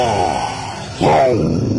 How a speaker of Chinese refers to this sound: 霸王龙大吼一声，转身就逃。